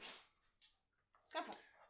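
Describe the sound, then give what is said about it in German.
A dog named Smokey makes short noisy snorting or huffing sounds indoors, a burst at the start and a louder, tonal one about a second later, with faint voices around. “Smokey ist ein lauter Hund ab und zu.”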